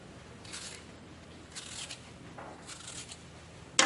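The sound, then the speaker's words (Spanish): Short, soft scraping strokes of a knife peeling a potato, repeating at an unhurried pace, ending with a sharper, louder scrape. “Michel queda solo y pela una patata.”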